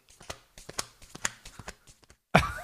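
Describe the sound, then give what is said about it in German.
Someone slaps their chest twice at a time in quick, uneven pairs, a dull patter imitating a horse's gallop that runs for about two seconds, followed by a brief louder burst of sound. “Ja, kennst du noch von früher, wenn die Leute immer dieses, dieses Pferd nachgemacht haben mit dem zweimal Klatschen auf der Brust oder so?”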